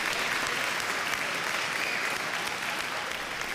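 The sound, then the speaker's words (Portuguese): A crowd applauding steadily, dense overlapping claps forming a continuous loud wash of sound with no pauses, holding even throughout without voices standing out. “Ela o chamou de anjo e todos ao redor aplaudiram.”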